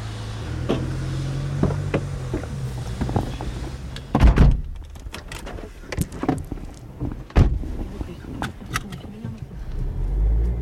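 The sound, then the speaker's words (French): People climb into a home care worker's car: rustling and shuffling, then two heavy door thunks a few seconds apart, mixed with scattered clicks and knocks over a low, steady engine-like rumble. “Alors là, on vient de monter dans votre voiture.”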